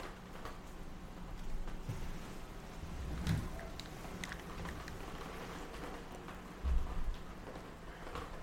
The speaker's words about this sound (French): Oh mon dieu, il s'est mis à pleuvoir pour vrai, c'est. Est-ce que. Mon Dieu, c'était de la manifestation. Non, mais attendez, je vais ouvrir la fenêtre puis on va écouter ça ensemble, de la vraie pluie.